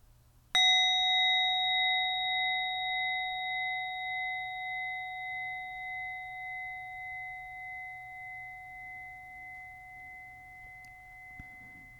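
A single meditation bell is struck once at the close of a meditation and left to ring out, its clear, pure tone sustaining with a gentle wavering shimmer and slowly fading over about eleven seconds.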